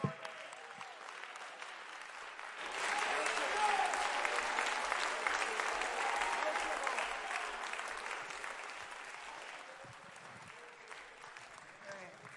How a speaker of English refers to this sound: And if that's the truth, then I've got a lot to shout about tonight and I've got a lot to rejoice over because God just gave me a hope for tomorrow. Come on, stand to your feet and clap your hands to the Lord.